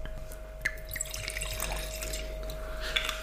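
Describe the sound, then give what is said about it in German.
Wine is poured into a glass, a steady trickling splash lasting a few seconds with a couple of brighter clinks of liquid, over a faint constant electrical hum. “Magst du ihm einschenken, den, den Ja, natürlich, okay, klar.”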